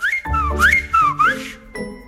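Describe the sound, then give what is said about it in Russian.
A short, lively whistle by a man: three quick rising glides in a row, clear, followed by a brief light chime at the end. No one speaks. “Брат, что шапку на бекрень носил, только присвистнул”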